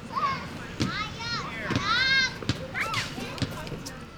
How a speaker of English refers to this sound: There are probably sounds that you associate with work. If you're a teacher, it's kids in a playground.